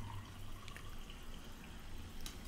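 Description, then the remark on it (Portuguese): Sparkling water is poured steadily for a couple of seconds, a soft continuous splash with scattered fizzy crackles and a few sharper drip-like ticks, fairly quiet. “Olha, água com gás, gente.”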